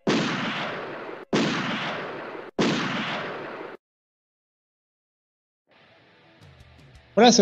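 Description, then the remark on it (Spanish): Three loud, booming gunshots from the firing squad executing Maximilian ring out one after another at steady intervals, each with a long echoing decay, followed by silence and then faint, unrelated sounds fading in. “Y dio una onza de oro a cada soldado frente a él, y sonaron los disparos.”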